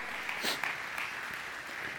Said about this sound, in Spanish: Denle un aplauso a los de tercera edad.